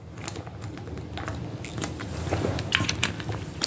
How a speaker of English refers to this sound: They say if you want to do a quality podcast, you shouldn't eat and drink while doing that. Well, I'm drinking some fizzy pink peach water while recording this.